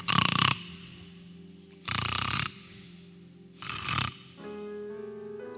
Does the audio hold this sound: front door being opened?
no